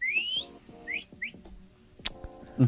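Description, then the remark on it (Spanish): A person whistles through pursed lips, imitating a walrus's whistle: one long rising note, then two short upward chirps, followed by a sharp click and a low thump. “Juntan sus labios y hacen.”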